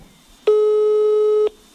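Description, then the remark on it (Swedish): A single steady electronic ringback tone, about a second long, from an outgoing phone call to a strawberry expert, sounding clearly with quiet on either side and no voices. “jag ska inte berätta själv för att jag ringde istället jordgubbsexperten”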